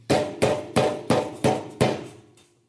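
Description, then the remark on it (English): Six loud, heavy bangs on a door in a fast, even rhythm, each a sharp impact with a short ringing decay, forceful, with no voices. “It is a loud, crazy, incessant, maniacal banging at the door of your heart in fear, deep fears.”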